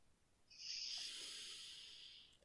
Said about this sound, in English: And a big sniff of that flower. Sniffy.